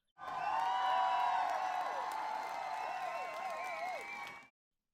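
A crowd applauds and cheers loudly, with whoops and whistles rising over steady clapping for about four seconds before it cuts off abruptly.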